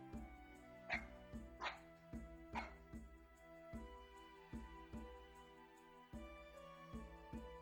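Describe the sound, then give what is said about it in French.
A small white dog wagging its tail gives three quick, bright yips in the first few seconds, heard over steady, rhythmic background music that continues after the barking stops. “Quand il te voit, il remue la queue et aboie joyeusement.”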